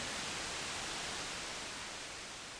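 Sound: white noise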